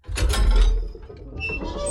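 A heavy alloy prison cell door, cell 000, slides open with a deep, loud rumble. It keeps moving with a steady mechanical grinding and a thin metallic whine. No voices.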